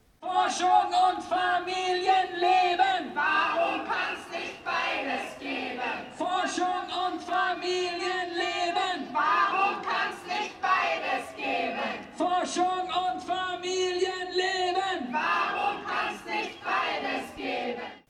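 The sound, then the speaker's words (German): A crowd of about 200 protesters, gathered at midday in Löwestraße for a demonstration called by the Initiative Unterbau Uni Wien against precarious university working conditions, chants loudly in unison, voices rising and falling in repeated rhythmic phrases with shouts mixed in, sustained for the whole stretch. “Anlässlich der Verhandlungsrunde am Montag, den 18.12., hatte die Initiative Unterbau Uni Wien zur Demonstration gegen die Kälte des Prekariats aufgerufen”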